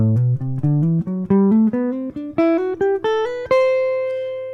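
A clean jazz guitar, played fingerstyle, runs an ascending slurred scale as a warmup exercise, notes flowing smoothly with some slurred together, ending on a sustained high note that rings out and slowly fades. No talking.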